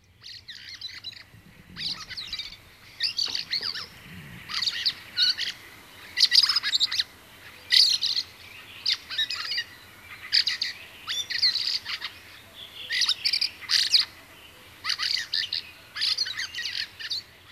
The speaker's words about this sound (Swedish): Eh, ja, det är ju många som inte uppskattar björktrastens sång, speciellt om man jämför med de andra trastarna, som, eh, och, och framförallt då koltrast och taltrast